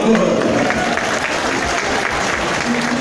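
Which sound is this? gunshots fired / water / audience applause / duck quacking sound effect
audience applause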